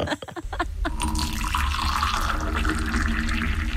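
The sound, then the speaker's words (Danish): A steady stream of warm urine splashes into a toilet bowl, a continuous hissing trickle that holds fairly loud and even after a few brief knocks at the start, foaming a little afterward. No one speaks. “Det lyder faktisk sådan, at min søn ja. går på toilettet.”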